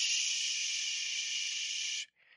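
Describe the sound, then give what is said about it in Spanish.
A steady, loud white-noise whoosh like the sound of a womb, as heard at an ultrasound, lasting about two seconds before cutting off abruptly, followed by a short, softer burst of hiss. “Y pues obviamente cuando tú escuchas los sonidos del ultrasonido, pues escuché este...”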